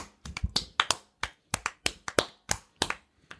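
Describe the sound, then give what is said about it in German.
A quick run of about a dozen sharp hand claps, slightly uneven in rhythm, as if a couple of people are clapping together, with no talking. “Dann leg kurz dein, dein Mikro, leg kurz dein Mikrofon zur Seite und jetzt klatschen okay. wir kurz.”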